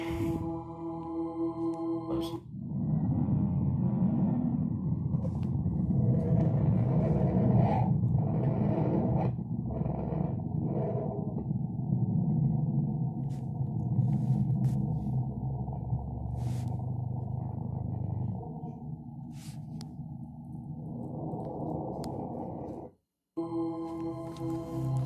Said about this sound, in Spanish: Ese fue el sonido que emite Mercurio.